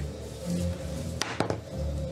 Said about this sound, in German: Wirf deinen ersten Death Saving Throw.